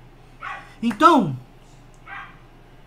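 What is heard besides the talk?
dogs barking and fighting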